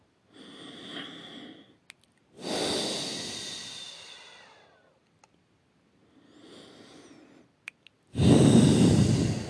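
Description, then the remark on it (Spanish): Slow, deep breaths by people at a Christian prayer service, drawn in and pushed out in long sighing waves, four or so breaths with pauses between, the last exhale loudest, with no talking. “Sigan respirando.”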